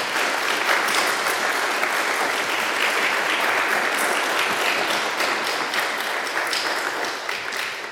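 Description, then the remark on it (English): Sustained applause from a large audience for a priest after his talk, dense and steady for the full eight seconds, with many hands clapping at once and the sound tapering slightly toward the end. “We very much appreciate it get a round of applause for Father.”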